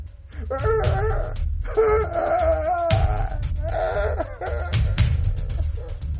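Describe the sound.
An anguished, strangled howl of frustration, more like the hiss of a choking cat, rises and breaks in several wavering bursts, harsh, over a heavy low rumble that continues underneath throughout.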